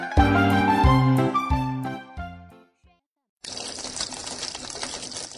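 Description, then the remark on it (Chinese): A bright tune plays and fades out, and after a short silence a tap left open gushes water in a steady, even hiss that runs to the end. “什么声音呀？呀，水龙头怎么没关？”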